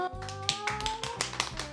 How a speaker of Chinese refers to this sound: 我想我们今天社区大会也开的差不多了，再次谢谢蓝屿高中的小导演们，给自己拍手。